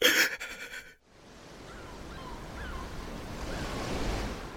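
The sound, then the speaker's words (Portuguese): Sea waves break on the shore, opening with a loud, choppy crash that cuts off briefly before a steady rush of surf swells back up and keeps roaring, with no voices. “Vamos fazer um pacto aqui, diante desse mar, diante da nossa mãe Emanjá.”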